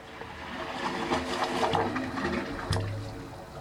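Sloshing water churns steadily while low, hollow tones hum and shift beneath it as waves roll into the 25 pipes of the Wave Organ, an acoustic sculpture on a peninsula in San Francisco Bay, with a brief swell near the end.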